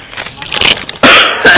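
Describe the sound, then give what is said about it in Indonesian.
Two sharp, loud coughs burst out in quick succession, following a moment of softer, breathy vocal sound. “Aduh batuk lagi.”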